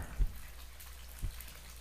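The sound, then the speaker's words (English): Faint, steady running water hisses from a master bathroom close by, a continuous wash of sound broken by two soft, low thumps about a second apart. “I stand perfectly still, listening to the sound and mingled with it is a much closer sound the sound of running water.”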